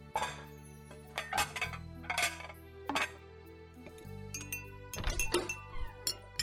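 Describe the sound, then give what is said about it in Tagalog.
Plates and then glasses are set onto a hard table as it is laid for a meal, in a string of sharp knocks and clinks, with ringing glassy tones lingering between them and no one speaking. “Lagay ko na nga itong mga plato sa lamesa para masunod ko na rin itong mga baso.”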